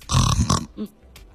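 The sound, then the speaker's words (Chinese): A voice imitates the heavy snoring of someone with sleep apnea: a loud, rough, rasping snort, a second harsher burst, then a short weaker grunt before the breathing stops into near silence. “刚刚我们还听二位介绍了一个叫做专门治那个晚上打呼噜有呼吸暂停综合征的朋友，因为正常人打呼噜就是，但有一些人我发现他这他是这么打呼噜的，他是。”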